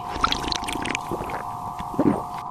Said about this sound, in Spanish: Los tres se acercan. El doctor recoge entre sus manos un poco de agua y bebe.